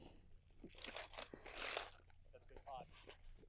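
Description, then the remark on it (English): Loud crunching as someone bites into a toasted sourdough breakfast sandwich with bacon, cheese and egg, a couple of crisp bursts followed by softer chewing, with a brief murmur of voice near the end. “So we got we got some sourdough some, breakfast sourdough sandwiches.”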